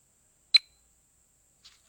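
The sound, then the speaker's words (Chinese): A phone alert beep for an incoming call: one sharp, high-pitched electronic tone, followed about a second later by a much fainter short blip, with silence around them and no talking. “嗯，不好意思哈，打断了一下，接来了一个电话。”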